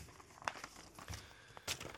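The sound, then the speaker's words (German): Paper notes being folded and tucked away, a few short crinkling rustles with soft handling taps in between, fairly quiet, with no one speaking. “Zettel zu, Zettel Handy zu. drauf, Stift drauf, erzählt. Tasse drauf.”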